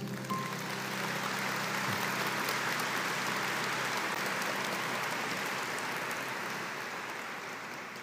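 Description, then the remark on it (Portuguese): Sustained audience applause for the actors, a dense steady patter of many hands clapping at full volume for several seconds before tapering slightly toward the end. “aplaudir aqui os nossos atores.”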